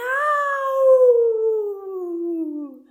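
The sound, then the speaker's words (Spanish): A single loud, drawn-out meow from a large cat that holds steady and then slowly slides downward in pitch for about three seconds, heard alone with no talking. “maulló el gato grande, y fue un miau tan fuerte que cincuenta y dos vecinos vinieron a ver qué pasaba.”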